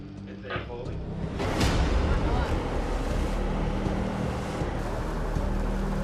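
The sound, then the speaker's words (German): Rising, gusting wind roars across Zodiac boats on rough water chasing a trawler, with ever higher waves slapping and surging and a low engine rumble underneath; the noise swells louder after the first second and stays dense. “Wind kommt auf und die Wellen werden immer höher.”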